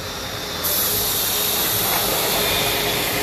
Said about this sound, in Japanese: ごめんなさいねものすごくうるさいバスが